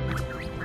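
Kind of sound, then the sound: bird, ducks quacking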